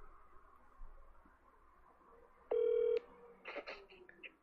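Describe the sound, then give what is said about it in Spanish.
A single loud electronic telephone keypad tone beeps for about half a second as a cut-off call to a lawyer is redialed, followed by a brief burst of clicking and rustling, over a faint background hum. “Vuelve a marcar a la abogada.”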